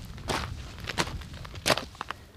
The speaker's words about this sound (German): Die Wege in Buchenwald sind lang. Kiesel knirschen geräuschvoll unter den Füßen.